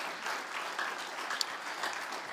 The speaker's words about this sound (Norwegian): Vi må gi Hilbert Norheim en god, god klapp.